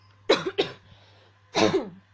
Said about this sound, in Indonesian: Batuk.